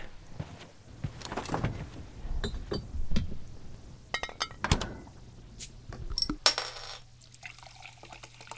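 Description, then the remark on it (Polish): Beer is poured into glasses with a steady splashing flow, a few sharp glass clinks along the way, and a short fizzy rush near the end. No one speaks. “Chcesz piwo? Chcę, chcę, chcę, chcę. Sobie też nalej”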